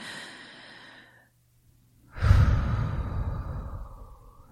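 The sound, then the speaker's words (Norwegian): A slow breath drawn in softly, a brief pause, then a deep, heavy exhale, like a long relaxing sigh, taken as a calming breathing exercise. “Sett av tid til pusting.”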